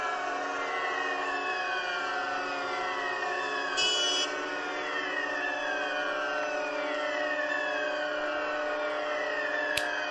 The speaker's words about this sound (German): Sirenen beginnen also überall zu heulen.